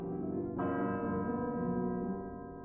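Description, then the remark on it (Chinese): A clock bell chimes midnight: a deep, resonant stroke rings out over the lingering hum of the previous one, its rich overtones sustaining loudly and slowly fading. No voices are heard. “糟了，是半夜十二点的钟声。”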